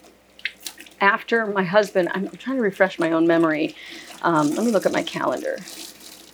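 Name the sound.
tap water running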